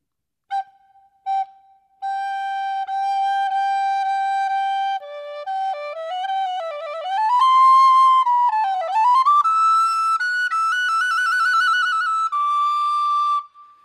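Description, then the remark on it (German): A clear whistled tune: the three-note call used to call a dog, two short notes then a long held tone, followed by a short scale of stepping and gliding pitches running up and down. No talking. “Angefangen mit den gleichen drei Tönen, mit denen sie normalerweise den Hund rufen konnte, und dann eine kurze Tonleiter drangehängt.”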